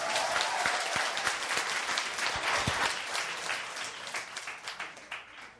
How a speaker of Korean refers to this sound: 한, 한 소절만 불러보세요. 일어나셔서. 박수 한번 쳐주시죠.